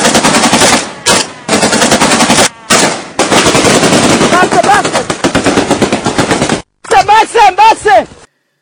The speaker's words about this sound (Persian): و به فاصله یه دقیقه اینا گلنگدانا رو کشیدن و بعدم الله اکبر و بسم الله و گفتن و به رگبارمون بستن